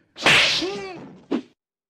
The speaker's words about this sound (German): Die Ohrfeige.